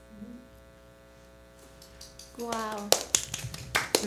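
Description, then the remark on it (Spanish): A short burst of audience applause breaks out after a brief buzzing tone, a scattered run of sharp, uneven claps that grows fairly loud over the final second and a half. “Sí, sí, sí, claro que sí, le damos un aplauso.”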